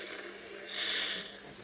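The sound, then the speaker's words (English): A voice imitates a hissing sound, kind of like a Fourth of July rocket: a breathy, steady airy rush that swells briefly in the middle and then settles, fairly quiet, with no words spoken. “A hissing sound like this.”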